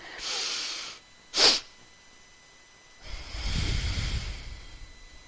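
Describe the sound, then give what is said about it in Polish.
A long, airy breath drawn in through the nose as a breathing exercise until the lungs are full, then a short sharp extra sniff, also through the nose, followed by a slow, calm exhale. Clear, with no talking. “pomaga mi takie banalne ćwiczenie oddechowe, które polega na tym, że wdychamy powietrze nosem i przy takim już końcu, wiecie, że już prawie jest, jesteście pełni od powietrza, bierzemy jeszcze taki dodatkowy haust też, e, też nosem, czyli tak...”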